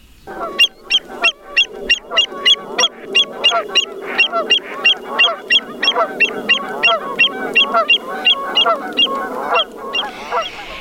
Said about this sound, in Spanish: Bien, para todos ustedes que nos están escuchando, estos sonidos son de aves de los humedales.